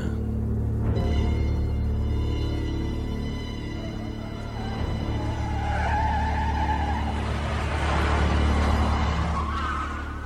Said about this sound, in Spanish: De repente el pavimento se puso áspero. El coche comenzó a rebotar y a estremecerse, dándole puntadas de dolor a su cabeza.